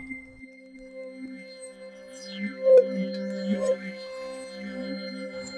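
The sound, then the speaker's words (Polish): A sustained metallic synthesizer tone from the Amorphous Metal preset with steady harmonic layers, gradually morphing through several stages of distortion as the modulation wheel is slowly moved from start to end. Faint sweeping overtones rise and fall across it, brightening briefly mid-way before settling into a droning hum. “Amorphous Metal. No, no to się może nadać. Tutaj kółko modulacji robi ciekawą rzecz.”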